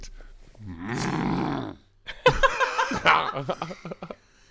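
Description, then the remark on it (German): A person lets out a long, low, droning bellow in imitation of a moose call, then breaks into a burst of choppy laughter. “Warte, wie macht der Elch?”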